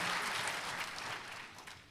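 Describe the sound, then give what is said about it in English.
A church audience claps steadily in a dense, continuous wash of applause, loud at first and tapering slightly toward the end, with no voices standing out. “And then I told them that that was weak, and then they clapped louder.”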